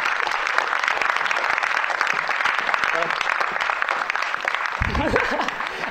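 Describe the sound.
Steady, dense clapping from a crowd as one of the event's organisers is invited to the stage fills the whole stretch at an even, fairly loud level, with a voice briefly audible beneath it toward the end.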